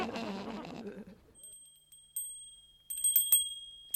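A small bell rings with a bright, high, sustained tone, struck a few times in quick succession and left to shimmer, after a brief stretch of voice at the start.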